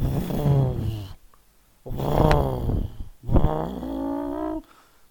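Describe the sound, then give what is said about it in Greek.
A voice imitates a revving car engine in three buzzy bursts, the pitch climbing and falling with each rev, separated by short pauses. “περπατούσε στο διάδρομο του σπιτιού του, ξέρω εγώ, Williams και έκανε ήχους από μηχανία μάξι Δηλαδή έκανε αυτό το...”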